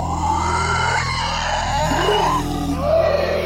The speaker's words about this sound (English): But as you come running up, in the woods just to the west, not too far away, you start to hear the sounds, the screeches and roars